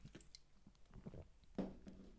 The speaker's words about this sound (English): I'm gonna have a sip of my seltzer water. Mmm.